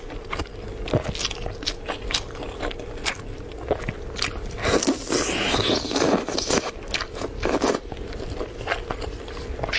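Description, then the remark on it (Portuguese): Someone bites into and chews a chicken drumstick, with repeated wet crunches and tearing scrapes in an uneven rhythm, fairly loud, with no talking over it. “鸡腿儿，frango, ó, ó, frango, olha só.”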